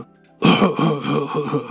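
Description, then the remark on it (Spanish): A voice imitates a man's harsh cough, a raspy, throaty hacking that starts abruptly after a brief hush and rattles on in uneven pulses for over a second. It mimics a man coughing as he walks behind the speaker through the store aisles. “Es un güey tosiendo, güey.”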